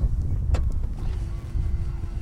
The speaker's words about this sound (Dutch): Zo, het waait behoorlijk.